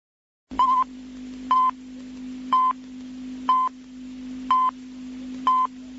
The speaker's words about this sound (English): Here it is, the familiar beeps at the beginning of 3 p.m. Shabbat Yom Kippur 40 years ago.